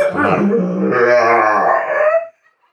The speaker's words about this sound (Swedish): Ja, har man en portugis då är man van vid att hunden pratar mycket. Ja. Mm. Det gör de. Och det gör han. Ja. Han hade mycket viktigt att säga.